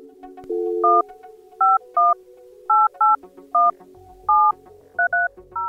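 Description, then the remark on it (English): A cell phone number being dialed with touch tones to reach Keith's personal cell phone, about ten crisp, loud dual-pitched beeps tapped out at a slightly uneven pace over a faint background hum, no voices. “The voicemail on his personal cell phone didn't take messages.”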